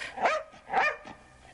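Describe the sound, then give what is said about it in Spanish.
A dog barks twice in sharp bursts about half a second apart, followed by a softer, shorter yip, with no one speaking; a scene from the film Frankenweenie at the resurrection of the dog Sparky. “Tenemos, si podemos escuchar breve fragmento de, de Frankie Winnie del, del 80, porque he sacado un corte que justamente es cuando la resurrección del perro, que, que es interesante.”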